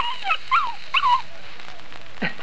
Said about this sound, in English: Quiet, you pups, quiet. Down, down.